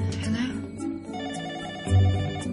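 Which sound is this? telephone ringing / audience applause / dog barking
telephone ringing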